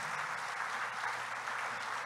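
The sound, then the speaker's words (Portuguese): A crowd applauds Jesus steadily, a dense wash of many hands clapping at once, sustained and even in loudness throughout with no speech over it. “Dá um aplauso a Jesus.”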